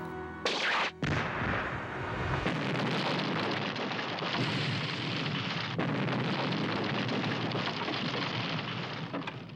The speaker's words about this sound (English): Indeed, the plane that is seen to explode from Scaramanga's laser is an art department mock up.